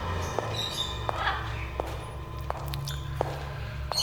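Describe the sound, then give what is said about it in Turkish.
Steady footsteps cross a large hall, about six evenly spaced steps with a hollow, echoing quality, while faint birdsong chirps in the background. “Kuş sesleri arasında geniş salonu yarılamışken komiser Sadi kesiyor yolumu.”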